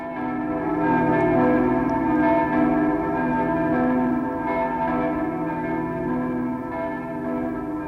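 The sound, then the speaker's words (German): Church bells in Berlin ring together in a dense, continuous peal, their overlapping tones humming and sustained throughout at a steady, fairly loud level, with no voices present. “Glocken aus Berlin rufen”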